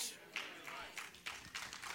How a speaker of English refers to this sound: No, that's a golf clap, but I'll go with it.